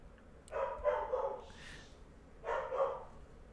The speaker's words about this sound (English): There goes My dog's pissed.